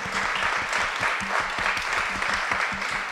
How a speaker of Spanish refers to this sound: Primero tenemos que agradecer al Festival Internacional de Cine de Morelia por. Un aplauso a Morelia, por, por prestarnos este.